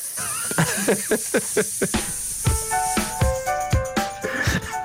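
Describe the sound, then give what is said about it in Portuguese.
A voice draws out one long, steady hissing "sss" that runs nearly the whole clip, layered over a bouncy musical backing with regular percussive hits and plucked notes. “Foi muito longo esse S, foi, não foi?”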